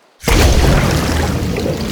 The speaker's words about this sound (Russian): Недолго думая, машинка-супергерой прыгнула в воду.